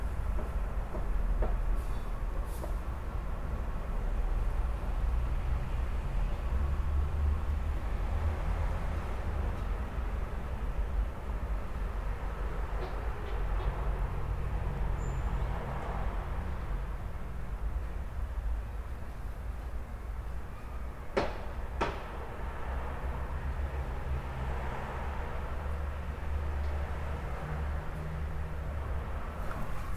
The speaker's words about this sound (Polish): Właśnie do niego podchodzę, otwieram okno. Za oknem jest taka osiedlowa uliczka. Zobaczymy, jak to będzie słychać. O ile coś tu przejedzie tędy.